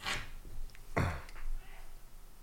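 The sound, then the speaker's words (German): A single faint sneeze from someone outside in the distance, a short breathy intake followed by a sharp, muffled burst that fades quickly against a quiet background. “Es, es, es, hat jemand genießt outside.”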